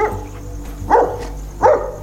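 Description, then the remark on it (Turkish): Three short barks from Diana, a dog, ring out at a steady pace, clear, each a sharp single yelp over a low background hum, with no one speaking. “Dördü de Diana'nın havladığı yöne baktılar.”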